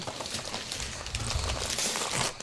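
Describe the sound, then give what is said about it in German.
Continuous crinkling of a plastic candy wrapper being handled and pulled open, a dense run of small crackles and rustles lasting a couple of seconds with no voices. “Ach, Knister, du Knister.”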